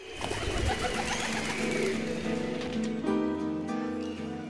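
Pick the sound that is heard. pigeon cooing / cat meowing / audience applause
pigeon cooing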